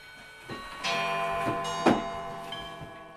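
Old clocks, which ring every 15 minutes, tick in a steady rhythm in a small apartment crowded with beer steins, hunting trophies and certificates, while a bright chime rings out, its sustained tones hanging in the air, with a sharper strike partway through. No one speaks.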